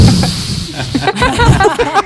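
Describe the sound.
Someone voices a fart that sounded like a punctured balloon deflating: a loud, airy hiss over about two seconds with a fluttering, sputtering buzz running through it that wobbles in pitch toward the end.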